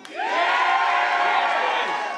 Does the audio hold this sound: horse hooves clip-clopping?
no